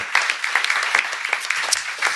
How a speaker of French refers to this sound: On peut les applaudir très fort.